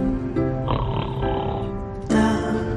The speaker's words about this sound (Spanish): ¿Pero quién ronca ahora aquí?